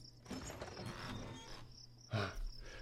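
Crickets or grasshoppers chirp steadily in the background, a thin high-pitched trill running through the whole stretch of outdoor ambience, with a brief louder rustle near the end.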